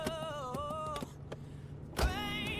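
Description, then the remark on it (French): A car door opens with one solid clunk near the end, after a few lighter clicks, while a steady, wavering tonal whine carries on underneath. “Donc il ouvre la portière et boum quoi.”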